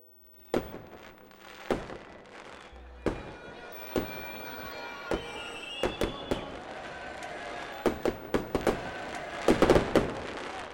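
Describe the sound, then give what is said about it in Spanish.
Fireworks rockets fired from small boats to welcome travelers arriving by steamer burst in an irregular series of about a dozen sharp cracks and booms, some arriving in quick clusters toward the end, over a faint background murmur. “Y poco después, se desprendió de los costados del vapor la hermosa falúa del resguardo, rodeada de los mismos botes, de los cuales partían cohetes y vivas que demostraban el entusiasmo y la alegría.”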